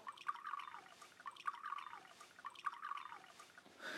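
Pretend wine being poured into a glass, with soft bubbling glugs that repeat in three even pulses, each falling slightly in pitch. The pouring is quiet, and no one speaks.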